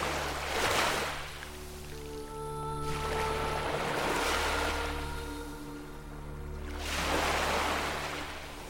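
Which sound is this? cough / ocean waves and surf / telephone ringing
ocean waves and surf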